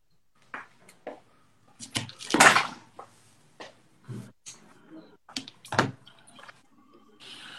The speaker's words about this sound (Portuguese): Deixa eu só fechar a janela aqui, que tem um cara acelerando um carro aqui, não vai dar para te ouvir.